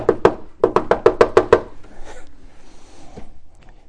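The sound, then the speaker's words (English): Two sharp knocks, a short pause, then a quick run of about seven more raps on a wooden door, loud, followed by faint shuffling and rustling. “Here you have Peter, fresh out of prison, knocking at the door.”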